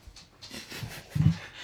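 A dog that has just come into the room pants in quick, breathy bursts, with a slightly louder huff near the end; no one speaks.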